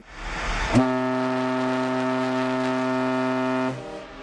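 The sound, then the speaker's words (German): The horn of a Hurtigruten coastal passenger ship on the Norwegian coast sounds one long, steady toot lasting about three seconds, a deep harmonic-rich tone that starts abruptly after a burst of wind-like noise and holds loud and even before cutting off. “Wir gucken jetzt mal oder wir hören jetzt mal, wie unser Schiff so klingt. Hier ist unser Tuten.”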